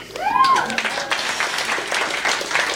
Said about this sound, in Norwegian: For alle gode tiltak, Agenda X og 24-7 og Chateau Neuf-publikum, applauder dere selv.